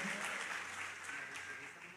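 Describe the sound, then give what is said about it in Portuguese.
A crowd applauds steadily at night, praising the Lord for the life of a visiting pastor, a dense wash of many hands clapping at an even loudness throughout, with a faint murmur of voices mixed in. “Queria chamar aqui nessa noite meu amigo, queria que você aplaudisse o Senhor pela vida dele,”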